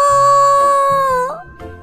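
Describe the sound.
A voice imitates a frightened mouse, the timid mouse in a children's story, crying after Naonao shouts at it from behind: a loud, steady, high-pitched scream held for over a second, then bending upward before breaking off into a shorter, softer whimpering cry.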